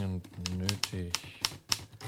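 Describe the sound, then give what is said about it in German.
Crisp typewriter keys clack in an uneven sequence of about seven sharp strikes as a letter is typed at the Hotel Hassler in Rome, while a man's voice speaks underneath and between them. “Seit er das Hotel betreten hatte, trug er Dickies Mütze sogar jetzt an der Schreibmaschine.”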